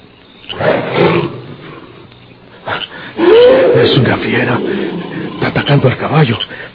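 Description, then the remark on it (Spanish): A wild beast roars in several loud, rasping bursts, with a rougher, quieter growl at the start that swells into a long snarling roar before ending in choppy pulses. “¿Dispararon sobre la fiera?”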